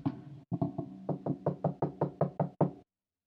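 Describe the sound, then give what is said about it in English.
About a dozen rapid, loud knocks, a person imitating someone knocking on a bedroom door at night. They come in a steady, insistent rhythm and then stop abruptly, with no talking. “I'm sleep, and then I hear them knocking on my bedroom door. I'll do the sound effects.”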